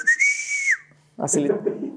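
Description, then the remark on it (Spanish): A single long, steady human whistle, a person whistling to call a bird, holds one clear pitch for under a second, then cuts off; after a short pause a person starts talking. “Y, le empecé a chiflar, empezaba yo”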